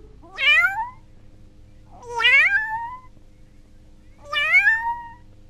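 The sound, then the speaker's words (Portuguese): A cat meows three times, spaced about two seconds apart, each meow rising then falling in a clear, moderately loud cry over a faint steady hum. “O gatinho.”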